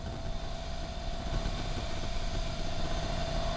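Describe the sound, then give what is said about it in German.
Muffled street traffic hums steadily, a low continuous engine rumble with a faint whining tone on top, even in level throughout with no voices. “Die Straße lärmt gedämpft.”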